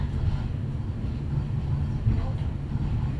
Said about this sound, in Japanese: Thank you for using the Hakone Tozan cable car. This cable car is bound for Gora. The next stop is Kamigora, number OH61.